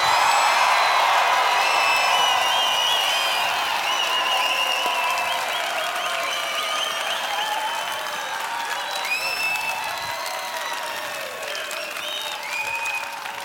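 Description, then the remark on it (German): A large crowd in a hall bursts into loud, sustained applause with cheering and scattered whistles, rehearsing its reaction to Pete's entrance for the camera. The dense clapping holds steady for the whole stretch and eases only slightly toward the end. “ich mache einmal den Auftritt von Pete, wie er das später macht und ihr rastet aus”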